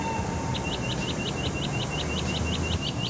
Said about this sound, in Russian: В солнечный день, когда световой сигнал нередко засвечен, светофоры со звуковым сопровождением подскажут, что можно безопасно переходить через проезжую часть.